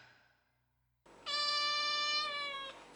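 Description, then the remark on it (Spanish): A cat lets out a single soft, drawn-out meow, steady and tonal, after a brief quiet moment, with no voices around it. “Maulló suavemente y se encaminó a la puerta del sótano, donde se echó cómodamente.”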